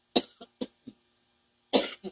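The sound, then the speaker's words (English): A run of dry coughs: four short bursts in quick succession, a brief pause, then a heavier double cough. No talking. “Uh, excuse me, I got a cough.”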